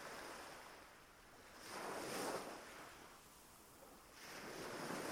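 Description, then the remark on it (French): Ocean waves roll in and break on a beach, rising in two broad washes of hissing surf before receding, steady with a faint breeze underneath and no voices. “Vous dessinez cette plage consciemment ou inconsciemment et vous voyez Vous mettez des images sur ces différents sons, sur le son de l'eau,”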